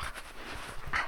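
A farm dog pants in quick, breathy bursts, with a short high whimper near the end, as the farm dogs greet an arriving visitor at Svartárkot, a farm at the edge of the Ódáðahraun lava field; no one speaks.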